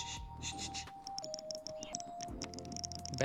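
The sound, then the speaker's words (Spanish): Quick, irregular bursts of small plastic clicks from a game controller's d-pad, much like mouse clicks, crisp, over a steady electronic tone that steps down in pitch. “La cruceta son clic de ratón.”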